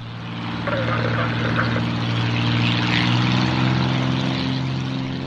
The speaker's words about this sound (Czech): To, co slyšíme, je zvuk letounu trenér. Zpočátku sbíral úspěchy u nás, posléze i v zahraničí.